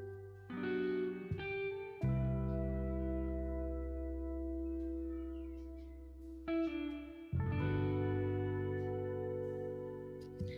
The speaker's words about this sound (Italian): Allora, siamo a giugno, quindi sono a casa sono a casa, come sentite, stanno suonando le campane della chiesa, c'è lo, scampani- c'è lo scampanio, quindi un po' di senso per le nostre campane.